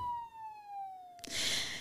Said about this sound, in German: als hinter ihm die Blaulichtsirenen ertönen.